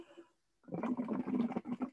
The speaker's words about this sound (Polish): są takie y, proste mm, rekwizyty jak butelka z wodą i rurka, która jest wężem ogrodowym pociętym na takie właśnie fragmenty o długości 35 cm. Mm, co robimy? Kiedy zanurzymy rurkę na centymetr bądź dwa w wodzie, po prostu możemy dmuchać do tej wody